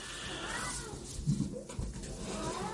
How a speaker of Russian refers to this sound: Я думаю, вы слышите, там у меня кот мой, маркиз, с ума сходит